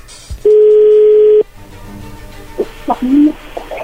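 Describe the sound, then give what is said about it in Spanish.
A telephone call ringing through: one loud, steady low-pitched ring tone lasting about a second, followed by faint clicks and muffled sounds on the line. “A ver, parece que ya entró la llamada no hayan ruido.”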